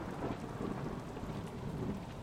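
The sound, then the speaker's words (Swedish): Steady heavy rain hisses across the whole stretch while low, rolling thunder rumbles underneath, a continuous storm with no voices. “Hon flög så snabbt hon kunde bland blixtar och regnvatten.”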